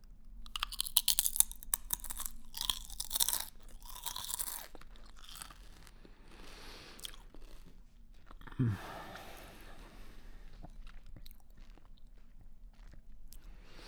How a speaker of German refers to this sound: Steck dir ab jetzt ganz nach deinem Bedarf immer wieder neue Chips in den Mund?